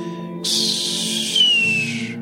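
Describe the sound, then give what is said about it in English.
A hawk flying overhead in the Arizona desert cries: one long, harsh, high screech lasting nearly two seconds, with a thin whistling tone gliding downward through it, over a steady low hum. “That was a hawk flying overhead.”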